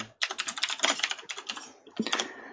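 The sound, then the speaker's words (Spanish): Rapid, uneven clatter of fingers typing on a computer keyboard, fairly loud, with a brief pause before a final burst of keystrokes; no one speaks. “Y esas teclas que habéis escuchado”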